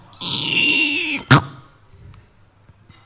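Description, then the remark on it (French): A voice mimics a door: a sustained, squeaky creak lasting about a second, followed by a short, sharp slam-like burst, then near silence. “Par exemple, là, c'est ce qui m'est venu, une porte, ou j'en sais rien, ou.”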